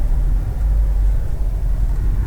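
Cars pulling in and arriving, a mix of minivans, compact cars and economy cars, heard as a loud, steady low engine rumble that holds constant throughout with no voices.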